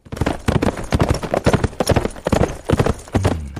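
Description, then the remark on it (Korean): A horse gallops, its hooves pounding out a fast, steady, rhythmic clatter of loud, sharp beats that continues throughout, with no voices present. “자, 말 달리는 소리 한번 다시 들을까요?”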